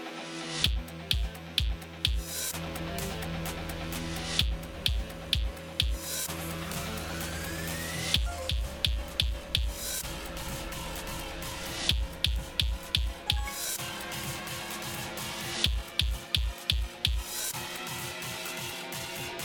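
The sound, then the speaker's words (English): Punchy kick drum hits fire in short rhythmic bursts, a pattern of quick thumps repeating in groups over a sustained musical backing, loud with no voices; a kick drum audio cue in a racing rhythm game, its pattern to be repeated in time with the music using the A button. “For the kick drum, repeat the pattern with the A button.”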